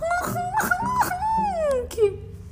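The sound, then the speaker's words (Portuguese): A voice imitates crying, a strange mix of sobs, moans and breathlessness, with wavering, moaning wails broken by short sobbing catches and sharp gasping breaths, fairly loud for a couple of seconds. “Mas não era um choro comum do tipo Era um choro esquisito, uma mistura de soluços, gemidos e falta de ar.”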